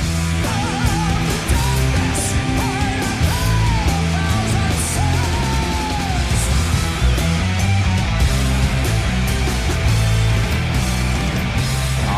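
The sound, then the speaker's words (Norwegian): A loud live concert recording from Stockholm in 2006 where the band plays a driving, steady beat and the audience sings and cheers along, their voices blending into the music throughout. “Eh, høres ut som publikum er med veldig her.”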